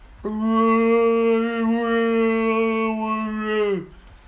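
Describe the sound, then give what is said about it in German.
A person voices a long, sustained moaning tone, like a whale call, holding one steady pitch for several seconds before it drops off at the end. Fairly loud, with no other sounds. “Kommt ein Wal in die Bar, sagt.”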